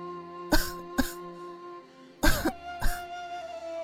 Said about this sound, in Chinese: 晴雯咳嗽了几声，说道：